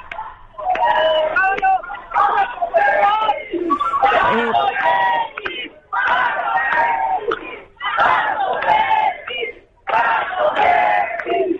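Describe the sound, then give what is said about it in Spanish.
A crowd of high school students shouting chants against the carabineros police in loud, rhythmic bursts separated by brief pauses, with overlapping yells and a noisy outdoor background, as they leave their classrooms to protest, banging on the gates. “Están gritando contra carabineros en este minuto y que son parte de los estudiantes que estaban al interior que están saliendo definitivamente de la sala.”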